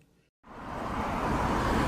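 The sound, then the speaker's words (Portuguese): After a brief moment of silence, a dense wash of city street traffic on Avenida Paulista in São Paulo swells in and holds steady: a continuous roar of passing cars and engines along the busy avenue, fairly loud. “Então vou deixar esse episódio aí como última história para você ouvir e você ouvir as sons da cidade de São Paulo e da Avenida Paulista.”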